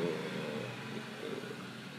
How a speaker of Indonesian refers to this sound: nah, ada suara motor lagi nih dengerin satu dua tiga gitu.